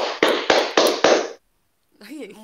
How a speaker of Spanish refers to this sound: Que yo eh, aplaudí intenso. Soy intenso.